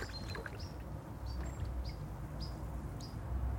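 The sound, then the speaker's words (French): A European pied flycatcher gives a series of short, sharp high calls, repeated about every half second, fairly faint over a steady low rumble of water or wind. “Ça, c'est le, le gobe-mouche noir. C'est un oiseau qui est presque invisible, qu'on ne connaît pas, euh, mais qui est très très commun en Europe du Nord et de l'Est.”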